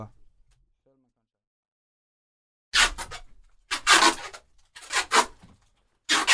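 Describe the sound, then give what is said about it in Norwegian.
After a quiet start, adhesive tape is pulled and torn off a roll in four close, loud rasping bursts, with rustling as it is pressed onto a person. “Jeg hører du teipen blir eh, påført på eh, Viktor her nå”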